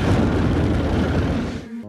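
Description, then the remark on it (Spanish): Deep, sustained rumbling roar of explosions from the erupting Jackson volcano, loud and continuous with low booming energy throughout, fading slightly near the end. “No sé si alcanzan a escuchar los estruendos. Son los estallidos del volcán Jackson.”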